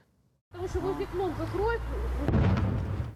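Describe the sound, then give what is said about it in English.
A person talks briefly over a low rumble, then a loud explosion from Russian forces in Russia's Belgorod region bursts out and its heavy roar carries on to the end. “A reporter standing nearby in the Russian Belgorod region said that the explosion was from Russian forces.”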